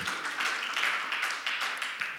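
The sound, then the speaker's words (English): A church audience claps together in a steady, dense wash of applause that holds at an even level for a couple of seconds, with no one speaking over it. “Come on, get some faith today and clap if you're excited.”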